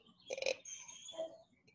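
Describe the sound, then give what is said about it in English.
A female dog that wants to go outside lets out a short whining grumble, a throaty burst followed by a thin high-pitched whine and a brief second murmur, with no talking. “can you hear my dog?”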